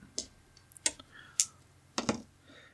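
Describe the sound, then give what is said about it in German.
Percentile dice are rolled for a d100 roll, coming up 88, clattering on a hard surface in a handful of sharp clicks and knocks spread unevenly over a few seconds, with a quiet background and no talking. “Dann weiter geht's mit einem W100-Wurf.”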